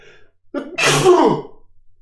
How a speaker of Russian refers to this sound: Будь здоров, спасибо.